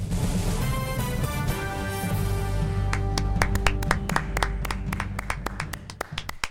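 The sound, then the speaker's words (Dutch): Applause: after a few seconds of sustained, harmonic tones, sharp individual hand claps break out and repeat at an uneven, fairly quick pace until the end, with no talking. “Dit is het beste, eh, beste applaus in, in, in sinds misschien wel tien afleveringen.”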